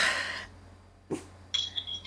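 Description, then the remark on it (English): A dog snorts and sneezes: a breathy huff, then a sharp nasal burst, followed by a thin, high squeaky whine. No one speaks. “that's my dog sorry”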